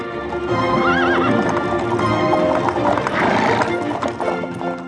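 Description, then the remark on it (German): Horses clip-clop steadily and snort as a horse-drawn carriage with large wooden, iron-rimmed wheels rumbles behind. A whip cracks and one horse whinnies loudly partway through; the scene is busy, with a faint voice somewhere in the mix. “Das ungestüme Schnauben der Pferde, das schneidende Knallen der Peitsche und das eintönige Ratang, Ratang der Kutschenräder.”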